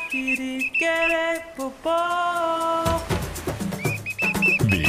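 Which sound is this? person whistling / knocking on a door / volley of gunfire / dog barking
person whistling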